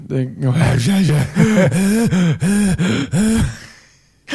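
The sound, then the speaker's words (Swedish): Heavy, voiced panting right up against the microphone: about eight quick, loud breaths in a steady rhythm, each with a strained vocal edge, before trailing off into quiet. “Förlåt, nu hörde inte jag vad du sa när jag flåsade i micken.”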